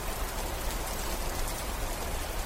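Heavy rain pours down in a steady, dense hiss that spans the whole spectrum, with a constant low rumble underneath and no voices.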